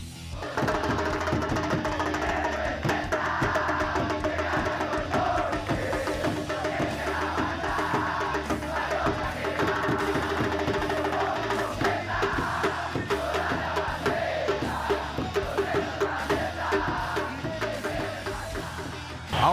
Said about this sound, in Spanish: en un día donde fue de júbilo porque la afición después de más de dos años volvía a las gradas de Coloso Capitalino y así fue el ambiente en la previa.